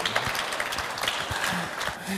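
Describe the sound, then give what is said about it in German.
A crowd claps steadily for a couple of seconds to welcome Dr. Schwan, the head of Schönhagen. The applause is a dense wash of many hands, with faint voices murmuring underneath. “Er hat einen Applaus verdient.”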